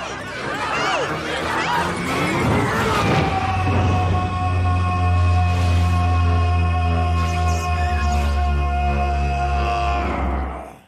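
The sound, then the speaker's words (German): A deep, thunderous ogre roar from an animated film, loud, starting with a rough growl and swelling into a long sustained bellow that holds for several seconds before cutting off. “Das ist der berüchtigte Schrei des Ogers in der Verfilmung von Shrek.”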